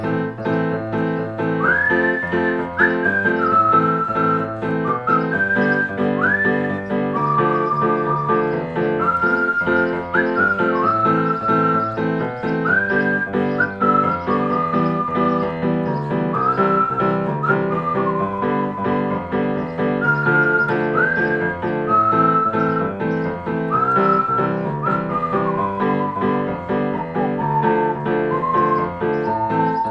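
A clear, steady whistled melody wanders up and down in short phrases over a full instrumental accompaniment, staying bright and fairly loud throughout with no voices.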